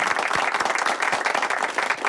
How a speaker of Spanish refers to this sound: Mary Coletas, gracias. Un aplauso para Mary Sí. Gracias. Fantástico. Más fuerte.